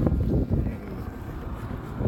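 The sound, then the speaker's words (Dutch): Steady wind buffeting a microphone, a low rumbling roar that fills the whole stretch with gusty surges near the start and end, fairly loud, with no one speaking. “Dit is wel echt ideaal voor een podcast. De wind die wint.”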